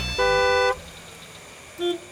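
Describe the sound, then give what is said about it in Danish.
A car horn blares in a long, loud blast, then a brief second honk follows a moment later, with a low hum of road traffic underneath. “De travle voksne flytter tættere og tættere på med deres hurtige biler, mobiltelefoner og stress og jag.”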